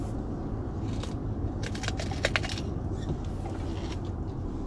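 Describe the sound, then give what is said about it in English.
Crisp, wet crunches of someone biting into a raw green bell pepper, a cluster of sharp snaps in the middle over a steady low background hum, with no talking. “Eating a green paper, pepper, rather.”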